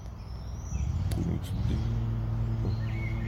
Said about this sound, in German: lassen wir dem Rasenmähermann jetzt vordrangen, der jetzt auch mal seine akustische Entfaltung braucht, wie er im Hintergrund hört